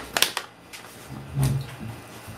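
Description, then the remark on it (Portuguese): A door is pushed shut: a few quick clicks of the handle, then a soft, muffled thud as it settles into the frame. Quiet, with no talking. “Fecha a porta.”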